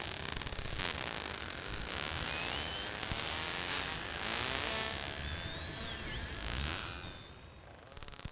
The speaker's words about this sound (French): Vous écoutez des globicéphales, aussi appelés dauphins pilotes.